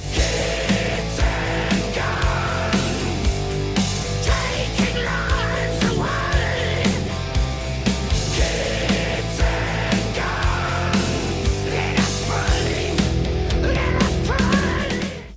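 A loud, dense heavy metal song, a single from a band's upcoming album, plays continuously, with driving distorted guitars, pounding drums and harsh, shouted vocals filling the whole stretch at steady full volume.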